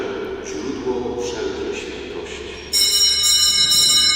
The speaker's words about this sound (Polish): ministranci dają sygnał dzwonkiem, że rozpoczyna się bardzo ważna modlitwa. Modlitwa, którą nazywamy epiklezą, modlitwa przywołania Ducha Świętego.